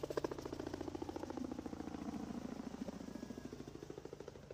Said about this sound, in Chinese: 又有一个飞机飞过去了，它怎么就飞完了？